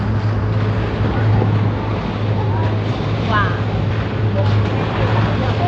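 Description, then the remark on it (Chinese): Sea water rushes steadily past a small boat on its way to Banana Island, a loud, unbroken wash of noise with wind buffeting and a low engine drone beneath; a voice briefly exclaims. “好吧，给你们听听大海的声音。”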